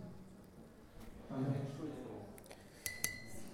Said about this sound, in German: Ähm, genau, wenn ihr so ein sympathisches Klopfen auf, das, auf die Wasserflasche hört, was ihr heute noch nicht gehört habt, dann bedeutet das, dass ihr am besten zum Ende eures Beitrags kommt.